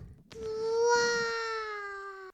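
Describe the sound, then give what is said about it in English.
A baby girl babbles "bye" with a single drawn-out, high-pitched vocal sound that holds steady for about two seconds and tapers off slightly at the end, loud and with nobody talking over it. “She said bye. Did you guys hear that?”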